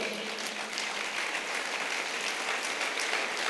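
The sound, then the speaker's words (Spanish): A church audience claps steadily and loudly for several seconds, a dense, continuous wash of many hands applauding together to the Lord, with no voices standing out. “Ahora, la característica, da un aplauso al Señor.”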